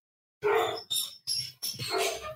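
dogs barking

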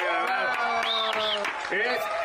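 applause

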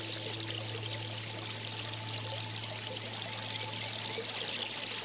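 water flowing

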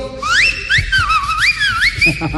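person whistling a tune

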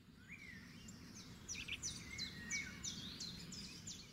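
small birds chirping

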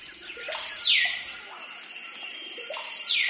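birdsong

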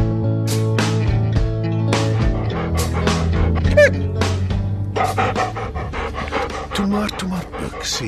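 dog panting

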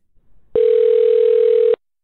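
telephone ringing tone

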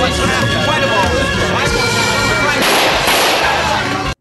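gunfire

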